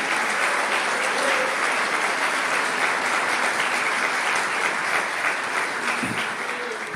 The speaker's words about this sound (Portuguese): Pode aplaudir o Senhor, pode, pode aplaudir, vale a pena, vale a pena, vale a pena.